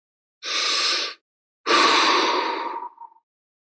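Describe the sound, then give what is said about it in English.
A big, deep breath drawn in, then a longer audible exhale that trails off, fairly loud with no talking. “So take a big deep breath to get us there.”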